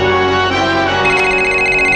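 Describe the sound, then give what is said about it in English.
A cell phone rings with a bright electronic ringtone, steady and loud for the full two seconds, with sustained tones and no talking over it. “Oops, oh, turn off my cell phone.”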